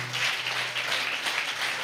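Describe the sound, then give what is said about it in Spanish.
A church audience applauds God during a morning service, a steady, dense wash of many hands clapping at an even, sustained loudness with no voices standing out above it. “Dele un fuerte aplauso al Dios que es Padre de toda la creación, es tu Padre, nuestro Padre.”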